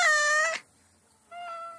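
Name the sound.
cat meowing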